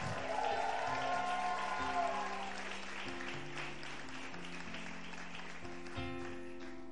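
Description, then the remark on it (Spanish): An audience applauds loudly and steadily for several seconds, dense clapping filling the room, with sustained organ or keyboard chords sounding underneath and a few cheers mixed in. “Aplaude fuerte ahora, dale, aplaude, aplaude, aplaude.”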